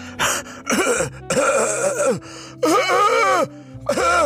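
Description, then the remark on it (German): A voice imitates the cough of the speaker's partner with five hoarse, strained bursts in an uneven series, loud, with groaning, voiced edges between brief pauses. “Meine Partnerin, so hat sie gehustet.”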